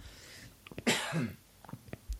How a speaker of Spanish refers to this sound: Voy a toser.